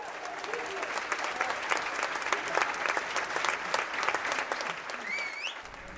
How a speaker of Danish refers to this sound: Det er faktisk lidt sjovt, det der med klapsalverne. Fordi udover at publikum på Tønder åbenbart er bedre til at vise deres begejstring end in the States